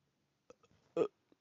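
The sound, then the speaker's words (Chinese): A single loud, abrupt hiccup from someone who ate too many eggs that morning and keeps hiccuping. It stands out, preceded by a few faint clicks and breathy sounds and followed by a soft small catch in the throat. No one speaks. “嗯，对不起，早上吃太多蛋了，一直打嗝。”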